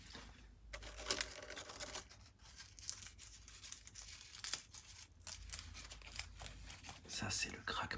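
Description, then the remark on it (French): Dry leaves brought back from a forest being crumpled for ASMR, a steady run of crisp crackles and rustles with sharp bursts, quiet overall and with no talking. “de feuilles que je vous ai ramenées de la forêt ce week-end.”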